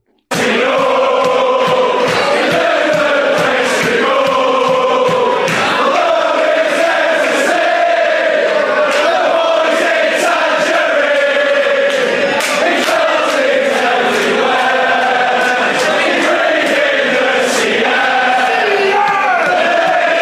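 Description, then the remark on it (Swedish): A loud crowd of Blackpool supporters chants in the stadium catacombs in Stoke-on-Trent, singing a chant about new signing Charlie Patino, on loan from Arsenal. Voices are massed in a rhythmic, sustained song with sharp rhythmic accents, continuous for about twenty seconds. “Och vi kan väl lyssna på hur det lät i katakomberna i Stoke-on-Trent när Blackpool-supporterna körde igång.”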